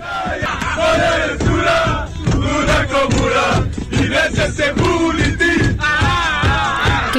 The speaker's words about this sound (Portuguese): Houve também muita cantoria dos jogadores no autocarro.